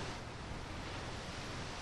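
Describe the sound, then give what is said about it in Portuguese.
A steady wash of sea waves breaking in front of a football pitch in Póvoa de Varzim, a continuous hissing roar with no distinct individual crashes, moderately quiet and with no voices. “É em frente, o mar se chega a ouvir sem o som das chuteiras e da gritaria.”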